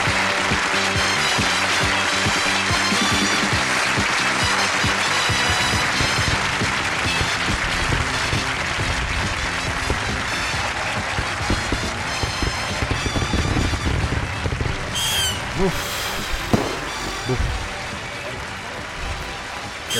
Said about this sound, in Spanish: Espera, espera, espera, los petardos.